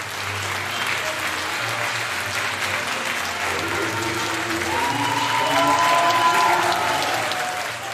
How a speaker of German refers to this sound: Und was lässt Schauspielerherzen höher schlagen? Richtig, der Applaus.